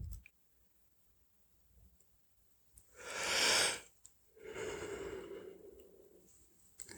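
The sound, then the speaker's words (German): A deep yawn from tiredness early in the day: a long breathy inhale followed by a drawn-out, low voiced exhale that slowly fades, heard alone with no talking. “Ja, und dann kommt auch ein Gähnen, ein ganz tiefes.”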